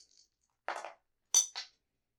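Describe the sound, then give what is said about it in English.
Dice clatter onto a hard floor during a roll in two quick bursts of small, bright rattling impacts, fairly quiet, with silence in between and no voices. “Shoe dice don't count.”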